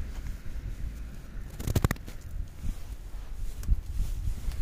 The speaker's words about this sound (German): Genau, das war Schnee, falls man es nicht gehört hat. So. Und jetzt ist Schnee in meinen Ärmel und auf dem Handy.